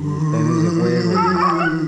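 A dog whimpers and yips in a steady, high-pitched whine that rises toward the end, fairly loud, with no other sounds around it.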